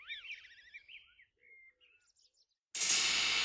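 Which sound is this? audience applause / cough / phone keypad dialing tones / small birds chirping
small birds chirping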